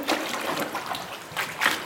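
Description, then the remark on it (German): Water sloshes and swirls steadily as a papermaker stirs a pulp of plant fibers into the water of a vat in a small workshop showing traditional papermaking, with soft splashy bursts rising and falling. “Gerade verrührt er einen Brei aus Pflanzenfasern mit dem Wasser in der Bütte.”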